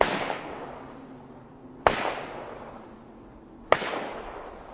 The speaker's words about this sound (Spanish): oye tres disparos.